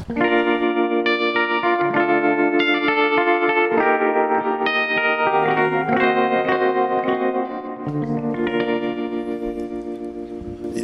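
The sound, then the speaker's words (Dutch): A 1950s-style pop record, the highest-charting song in the Dutch Top 40, plays at full volume, with rich sustained harmonies, a steady pulse and a reverb-soaked, echoing sheen. No one speaks over it. “een heel erg 50s eh, plaatje.”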